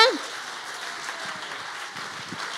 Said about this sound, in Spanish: Ayúdeme. Si usted va a aplaudir, apláudale bien.